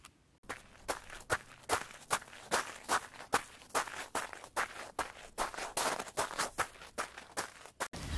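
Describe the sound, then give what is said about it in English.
Steady footfalls of people jogging outdoors in Hyde Park at a brisk pace, about two steps per second, each a crisp thud against a soft background hiss. Nobody speaks. “I have to admit, this felt a relatively pacey plod for podcasting, so please excuse a bit of breathlessness, sniffles, and a stumble of my words.”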